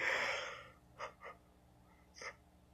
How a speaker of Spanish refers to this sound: Ay, disculpen y Él se enseñoreará de ti. Quiero pensar de que cuando bostezo, ustedes bostezan y les causo bostezo y me daría muchísima gracia.